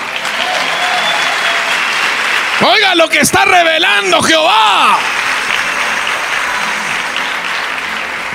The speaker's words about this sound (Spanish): Le das un aplauso a Jehová.